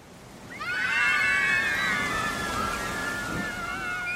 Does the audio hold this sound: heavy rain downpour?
yes